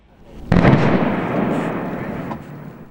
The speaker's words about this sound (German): Diese Explosion, die man hier hört, ist die Rettung und steht für den Anfang vom Ende des Deichbruchs.